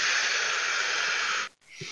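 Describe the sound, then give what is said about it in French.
A voice imitates a wheezing breath on someone's neck, a long steady airy hiss lasting about a second and a half, followed by a short pause and a brief second breathy exhale. “Ah, c'est vrai que vous avez une petite respiration dans le cou, les deux là.”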